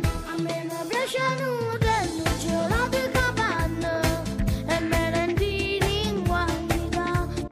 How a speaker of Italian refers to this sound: non sentite una musichetta in sottofondo? Si sta avvicinando? Ora che me lo dici, inizio a sentire qualcosa di familiare. E chi è? Lupo Lucio? È eh, sempre Lucio, ma non so se è il lupo. Ah, è piccolino. Ah, ok. Sigla.